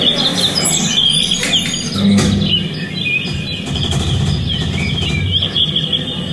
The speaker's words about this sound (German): Wir haben gerade festgestellt, im Fahrstuhl laufen, äh, läuft eine Vogelschleife. Wir fahren jetzt nochmal eine extra Runde, um das klar zu machen.